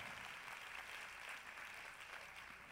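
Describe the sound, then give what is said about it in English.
A crowd applauds steadily, a dense wash of many hands clapping at once with no clear individual beats, holding an even, fairly soft level throughout with no talking. “I'm going to make everybody clap to that.”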